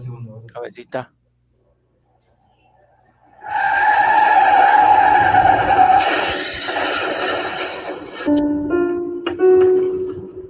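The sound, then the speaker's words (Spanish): A brief voice, then a pause before a loud, sustained tire screech of a car skidding for several seconds, ending in an abrupt crash impact and lingering metallic noise. “Al momento del impacto, la mujer salió disparada del coche, quedando su cuerpo allí tirado en la mitad.”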